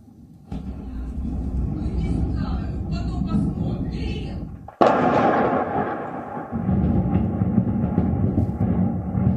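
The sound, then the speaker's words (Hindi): A heavy, low rumble of bomb explosions across the city of Kharkiv, Ukraine, during the war builds, broken by one sharp, loud blast partway through, followed by continued deep roaring and crackling, with faint voices underneath. “यानी खारकीव अब युद्ध की आग में जलकर धीरे धीरे खाक होता जा रहा है और पूरे शहर में बम धमाकों की आवाजें सुनी जा रही हैं”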